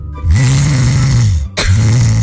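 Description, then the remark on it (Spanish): A man loudly imitates snoring with two long, rattling, throaty breaths separated by a brief pause, harsh in tone. “A ver, vos roncás, mi hermano. Mucho, mucho, mucho.”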